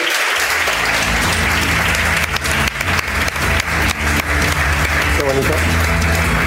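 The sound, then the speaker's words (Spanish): A crowd breaks into loud, sustained applause for a guest being introduced on a show, dense clapping filling the whole stretch with a steady roar, with some murmured voices and cheering mixed underneath. “Un aplauso fuerte para él.”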